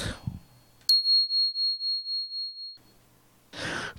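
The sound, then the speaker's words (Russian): A phone rings with a single high, steady electronic tone that pulses quickly for about two seconds. Brief rustling noises come before and after it, with no talking. “Минутку звонят.”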